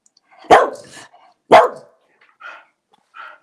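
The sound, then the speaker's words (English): A dog named Bouncy barks twice, sharp, about a second apart, when asked to bark twice if the Lions will win the Super Bowl, followed by a couple of softer, shorter yips or whines trailing off. “Bark once if they're gonna win the Super Bowl. Bark twice if they're going to win the Super Bowl.”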